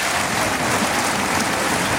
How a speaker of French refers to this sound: Et certains se lèvent pour applaudir la qualité de cette série.